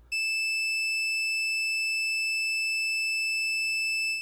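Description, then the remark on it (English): A steady, piercing high-pitched tone, heard at 3 a.m. in a hotel room, sounds continuously at a constant loud level, like a smoke alarm that never stops, with a faint low rumble creeping in near the end. “What he was hearing was a tone the same piercing pitch and loudness as a smoke alarm, but constant.”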